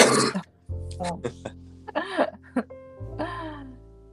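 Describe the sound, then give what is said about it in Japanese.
A sharp cough, lingering from a recent illness, bursts out at the start, followed by a few short, rough throat-clearing sounds and low vocal noises, with no clear speech. “まあ、咳がまだ少し残ってるけど、うん。”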